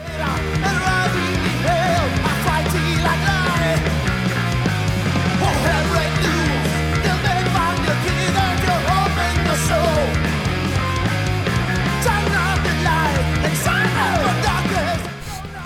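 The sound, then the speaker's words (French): A loud 1980s-style heavy metal song by an Italian band, from their upcoming third album, plays without pause, thick with distorted guitar, pounding low end with the bass in E-flat, and busy lead lines, fading slightly at the very end with no one talking. “Bon, c'est très très années 80.”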